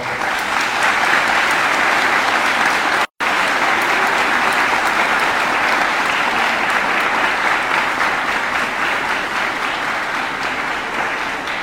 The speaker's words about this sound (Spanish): A esa madre, nuevamente expresémosle el cariño con un fuerte aplauso.